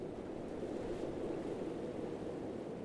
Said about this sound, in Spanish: De cualquier forma, me costó entrar adecuadamente el frasco, ya que cada vez que golpeaba una ola, movía la arena y dificultaba el progreso que había logrado.